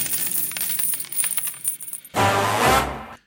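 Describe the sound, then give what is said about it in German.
Coins drop and clink in a quick, bright jingling flurry, followed by a heavier burst as a pile of coins spills and rattles before settling into silence. “Spanne er die Pferde ein und spute sich, denn springend klingt die Münze.”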